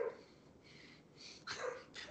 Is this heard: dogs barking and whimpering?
yes